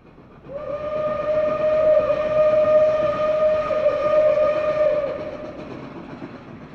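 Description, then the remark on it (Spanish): A train rumbles by as its whistle blows one long, steady, loud tone for several seconds, then cuts off while the rolling noise carries on and slowly eases. “vas en ferrocarril para saber dónde estás.”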